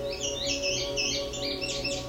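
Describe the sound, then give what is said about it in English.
A male indigo bunting sings a quick series of bright, high-pitched paired notes and sweeping chirps, clear, with a steady low background hum and no talking. “The song of the male indigo bunting is lengthy and complex and is best learned through listening and memorizing the song.”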